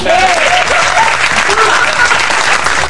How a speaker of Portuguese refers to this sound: Mais palmas. Mais palmas, né?